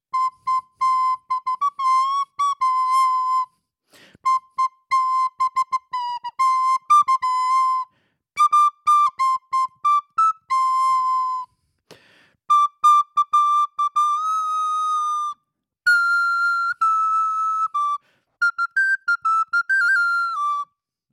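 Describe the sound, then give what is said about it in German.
Someone whistles a rock tune alone, a clear melody of sustained and quick notes in several phrases separated by short breaths, slightly wavering in pitch. “Okay, ich glaube, du brauchst noch, ich glaube, du brauchst noch mal ein paar Flöt Flötstunden jetzt.”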